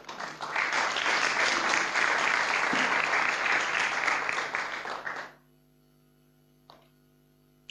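A standing audience applauds the Lord loudly and steadily for about five seconds, a dense crackle of many hands clapping, then it stops abruptly, leaving a low electrical hum and one faint click.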